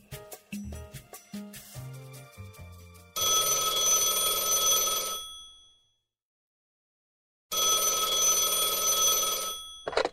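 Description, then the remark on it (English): A telephone rings on an outgoing call to sports radio host Chris 'Mad Dog' Russo: a quick run of short musical beeps, then two long, loud, buzzy ring bursts separated by a pause of silence. No voices. “To try and settle this debate, I called legendary sports radio host and the author of 100 Greatest Sports Arguments of All Time, Chris Mad Dog Russo.”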